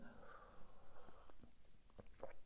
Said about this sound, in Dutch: Even een slokje thee nemen hoor. Tussendoor.